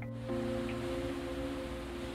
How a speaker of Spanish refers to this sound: El ritmo de las olas nos arrulla. Las ondas de oscilación y propagación provocadas por el movimiento del mar nos ayudan a desplazarnos.